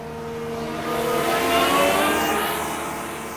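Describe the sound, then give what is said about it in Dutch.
An electric lawnmower passes by, slowing briefly as it goes, its whirring motor whine rising in loudness toward the middle and then easing off, with a faint shift in pitch. “Oh, dan komt hier even een elektrische grasmaaier voorbij.”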